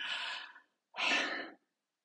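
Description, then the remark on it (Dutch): A single deep breath, a long airy inhale followed after a short pause by an equally long, breathy exhale, clear with no talking. “Voordat je weer wat in je mond stopt, probeer echt één keer diep in en uit te ademen.”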